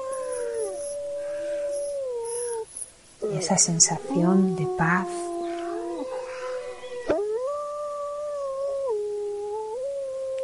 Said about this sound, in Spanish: Podemos ver lobos, los oímos, están aullando. Y con este sonido maravilloso de los lobos aullando